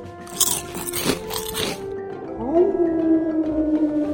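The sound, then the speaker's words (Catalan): Several loud, wet crunching bites in quick succession as the wicked wolf leaps on Little Red Riding Hood and devours her, followed by a sustained low growling tone that lingers to the end. No talking. “I dient això, el llop malvat es va llançar sobre la caputxeta i la va devorar, tal com havia fet amb l'àvia.”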